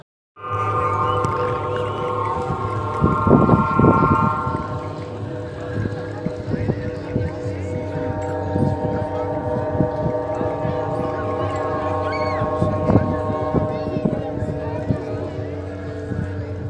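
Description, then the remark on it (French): Wind sets aeolian harp strings humming in a steady, overlapping drone of sustained tones, with gusty outdoor noise and a few scattered knocks and clatters throughout. “Allez un peu plus loin, vous avez des harpes éoliennes.”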